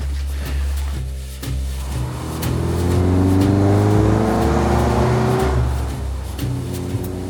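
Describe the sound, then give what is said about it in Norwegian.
A car engine hums, climbing in pitch as it pulls away and shifts gears, then settles and eases down as the vehicle slows to a stop and parks outside a modest house in Frydenhaug. No one speaks. “Litt seinere parkerte jeg utafor det beskjedne huset Arild leier på Frydenhaug.”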